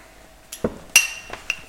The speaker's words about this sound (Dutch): Dus hebben we het ouderwets met een muntje gedaan.